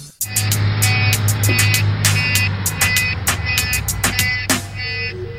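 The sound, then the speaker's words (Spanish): A car stuck in traffic idles with a steady low engine rumble while sharp, repeated horn-like beeps and clicks sound in an irregular rhythm. “Atorado en el tráfico”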